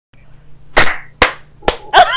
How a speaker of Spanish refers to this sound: me aplaudiste una hora después